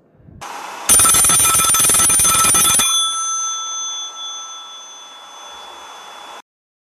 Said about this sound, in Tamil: doctor Sekaran ஆஃபீஸ்க்கு ஒரு phone வருது